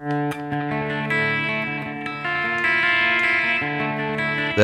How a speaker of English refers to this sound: clean sound, uh, arpeggiated … part, and that's the the part that opens the song